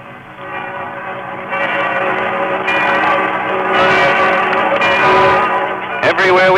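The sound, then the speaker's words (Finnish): The bells of Notre Dame and other Paris churches peal loudly and continuously, their overlapping tones ringing together, while a Canadian commentator talks rapidly over them on a muffled, old-sounding recording. “Seuraavaksi sitten vähän Notre Damein ja muiden Pariisin kirkon kellojen soittoa.”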